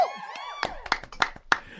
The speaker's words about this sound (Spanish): Espérate, ¿dónde, está la gente aquí? Más aplauso, más aplauso.